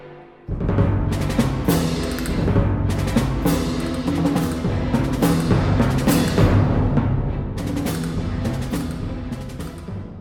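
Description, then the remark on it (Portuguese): Loud, full orchestral music driven by percussion, a percussion variation from Benjamin Britten's variations on a theme by Henry Purcell, with repeated bright crashes and strikes bursting over a steady, dense instrumental bed throughout, no voices present. “E assim tivemos um panorama da variada, incrível família da percussão no quadro Que Som é Esse?”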